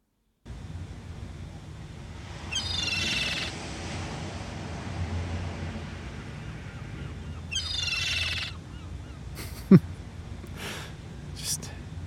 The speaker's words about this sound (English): bird noises. oh my gosh. Wow. Um, that was a real audio treat. I'm sure it was. it was a real smorgasbord of beautiful noises.